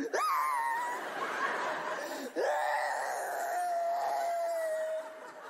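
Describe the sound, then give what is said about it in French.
A woman's voice imitates exaggerated crying: two long, loud, wavering wails, the second sliding slowly downward in pitch, with no other sounds. “Et là, toi, tu fais la meuf qui pleure.”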